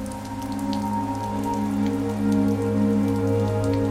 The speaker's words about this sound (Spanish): sin reparar en la tormenta que crepitaba a su alrededor